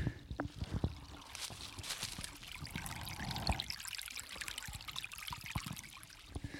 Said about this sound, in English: You guys hear that babbling brook?